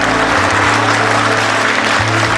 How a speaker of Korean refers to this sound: 그를 응원하는 박수 소리는 이내 함성으로 바뀌고 드디어 결승점에 도착합니다.